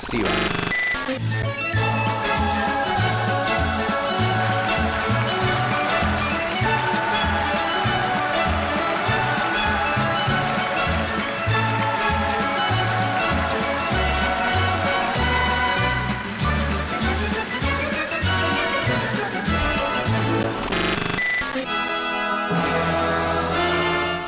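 A lively Brazilian song played by a band, with a bouncing bass line under busy, bright instrumental melody, loud and continuous throughout with no one talking.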